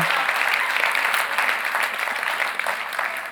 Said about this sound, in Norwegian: Vi gir en applaus